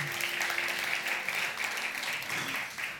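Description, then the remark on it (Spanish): Steady applause from a crowd applauding God after a prayer, a dense continuous patter of many hands clapping at even loudness for the whole stretch, with no one speaking over it. “un fuerte aplauso a su Dios en este día.”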